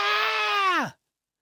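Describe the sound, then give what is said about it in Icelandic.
A single loud scream of fright from a man, startled at suddenly seeing a huge wolf standing on the windowsill, held steady for nearly a second before its pitch sags and cuts off abruptly, acted out by a voice with no other sounds. “Honum brá og öskraði.”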